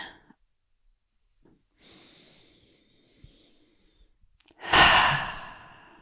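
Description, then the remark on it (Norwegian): A slow, quiet breath drawn in through the nose as a breathing exercise, a short pause, then a loud, long sighing exhale. No one speaks. “Pust kan ta med oss de gode pusteøvelsene fra Irene. Ett pust inn i deg selv.”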